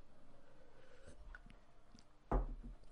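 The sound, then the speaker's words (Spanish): Someone takes a quiet sip of water, with faint mouth and swallowing noises, then a short, louder knock as the glass is set down. Nobody speaks. “un traguito de agua y unas cuantas cositas más.”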